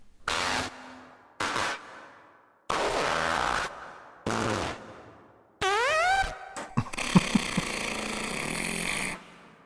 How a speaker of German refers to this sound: Du hörst das, ne? Da hat jemand sich die Mühe gemacht, 40 Minuten lang Furzgeräusche hintereinander zu schneiden.